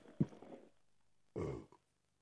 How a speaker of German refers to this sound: Das gibt's doch nicht, das war ein originaler Rülps. Ja, aber es war das ein sehr... Das ich ja noch nie gesehen. Es war ein sehr eleganter Todesrülpser, sogenannte Todesrülpser.